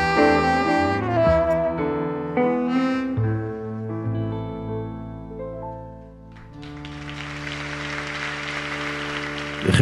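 A song with sustained instrumental notes winds down, then audience applause swells in as a steady, dense wash of clapping over the fading final chord, continuing to the end.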